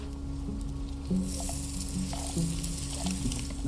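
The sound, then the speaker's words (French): Two thirds of the onions go into a hot pan and sizzle steadily, the crackling hiss swelling a little over a second in as they go in, with a low hum underneath and no voices. “Mets les deux tiers des oignons.”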